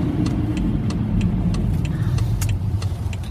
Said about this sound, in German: Ich weiß übrigens gar nicht, wenn ich hier so durch diese Regennasse, über diese regennassen Straßen fahre, ob das audiotechnisch eine Katastrophe ist.